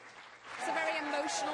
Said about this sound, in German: 200 New Yorker klatschen Beifall.